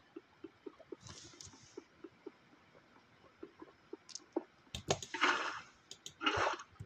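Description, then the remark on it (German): In a video game, water flows over blocks: short bursts of rushing, splashing water come and go over a steady patter of small clicks, with louder gushes near the end. No one speaks. “Scheiße, das Wasser kam zu spät.”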